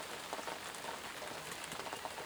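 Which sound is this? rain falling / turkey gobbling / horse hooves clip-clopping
rain falling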